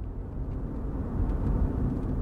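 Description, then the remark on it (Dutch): Steady low-frequency rumble of a car driving through snowy Sweden, heard from inside the cabin, with continuous road and engine noise that swells slightly midway and no voices, on the way to deliver a court verdict. “Wij zijn nu onderweg met de auto naar Samir om hem de boodschap te geven.”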